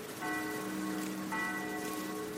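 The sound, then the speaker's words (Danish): Church bells in Denmark ring out in two resonant strikes about a second apart, their long ringing tones overlapping against a steady hiss like falling rain. “kirkeklokker. Ja, og kirken.”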